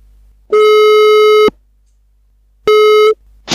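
Two loud electronic ringback tones, about a second and under half a second long, separated by a pause of silence, like a phone line ringing while a call connects.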